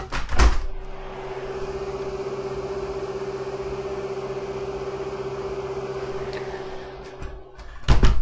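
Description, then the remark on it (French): A tractor-mounted mower belonging to the local commune cuts grass outside at 8:11 in the morning. It makes a steady low engine hum with a constant whining tone, framed by a couple of sharp knocking thumps at the start and end. “c'est une faucheuse d'un tracteur de la commune qui coupe l'herbe à l'extérieur.”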